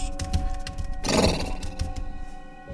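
A horse lets out a loud, breathy neigh about a second in, rising over a steady low rumble and droning tones, with faint movement noises before and after, as two huge black horses pulling an old cart arrive.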